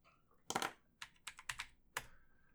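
Keys clatter on a computer keyboard as someone types in the game Arma 3, in quick, irregular bursts of sharp clicks, fairly loud, with brief pauses between clusters of keystrokes and no voices.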